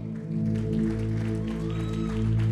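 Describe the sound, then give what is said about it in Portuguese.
An audience applauds with a steady wash of clapping over sustained keyboard chords that hold underneath throughout. “Porque, ó, muitas, pode aplaudir.”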